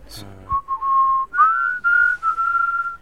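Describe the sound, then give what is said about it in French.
A person whistles the Swiss national anthem, a slow, steady melody with sustained tones and a few short breaks between phrases, clear, after a brief breathy sound at the start. “Est-ce qu'il y a un, hymne suisse Est-ce que vous pouvez le siffler L'hymne suisse.”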